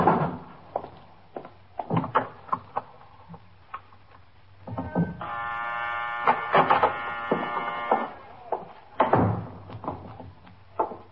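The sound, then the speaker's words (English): A door buzzer is pressed to unlock the locked downstairs door, sounding in one steady, harsh three-second drone, surrounded by scattered knocks and clicks of handling and footsteps before and after. “Look, the downstairs door is locked. Can you press the buzzer?”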